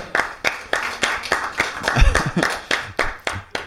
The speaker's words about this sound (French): Ah, c'est bien les applaudissements, ça montre qu'on n'est pas tout seul.